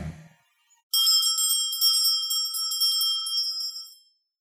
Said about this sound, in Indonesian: Samar-samar di antara ocehan bebek, Ku dengar lagi suara kemerincing lonceng.